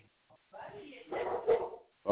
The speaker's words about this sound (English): Oh, yeah, the, the wife walked in the front door and the dog greeted her.